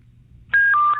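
Telephone dialing tones after a moment of low, quiet hum, as a call is placed to a singer for a radio interview: a loud, steady electronic beep, then a second, slightly lower-pitched tone that carries on to the end. No one speaks.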